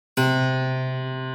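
The first note played on a piano that Gould adores, after its final tuning, is struck firmly and rings on alone, its rich tone sustaining and slowly fading over a second or so, with no voices or other sounds.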